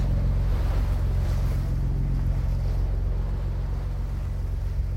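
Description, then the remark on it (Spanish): Steady sea wash and gusting wind roar on the deck of the rebel cruiser Canarias at 9 p.m. on 6 February, a moonless night, with a deep, continuous engine-like rumble underneath; constant and fairly loud, no voices. “6 de febrero, 9 de la noche. Cubierta del crucero sublevado Canarias.”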